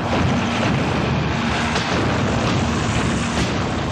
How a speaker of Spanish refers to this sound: Para el bombardeo se usaron cartuchos con pólvora que fueron disparados desde el mangrullo ubicado en el centro de la cancha para que impactaran sobre los perfiles de edificios del fondo del escenario fue una locura.